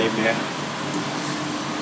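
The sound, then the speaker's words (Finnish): A washing machine spinning laundry on its spin cycle gives off a steady, continuous mechanical whir and rushing hum, unchanging for the whole moment. “Itse mun pyykit meni linkoon, linkoon right.”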